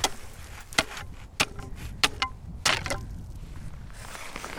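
An ice chisel strikes lake ice to test its thickness and breaks through in three strikes. The strikes are sharp, bright, crunching thuds at uneven intervals, each ringing briefly over a steady low rumble of wind-like background noise.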